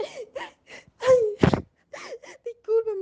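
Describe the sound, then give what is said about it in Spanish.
A voice acts out a princess's theatrical sobbing after she has killed a frog, with a string of wailing, broken cries and a sharp gasp in the middle, fairly loud, trailing off into a long whimpering moan. “La rana había muerto y la princesa se puso a llorar.”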